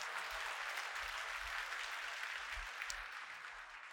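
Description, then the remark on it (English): A church audience claps their hands in praise of the Lord in sustained applause, a dense, steady wash of many overlapping claps at an even loudness for the full four seconds, with no voices standing out. “Now put your hands together and give the Lord a hand clap of praise on today.”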